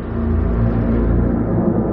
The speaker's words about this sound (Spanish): De noche, un coche circula por una avenida plagada de establecimientos con los escaparates iluminados.